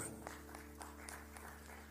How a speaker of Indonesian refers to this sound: Mari yang setuju boleh tepuk